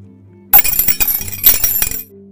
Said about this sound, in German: Der Keks beginnt zu zappeln und schießt mit Wucht gegen den mit kleinen Flugzeugen dekorierten Kronleuchter.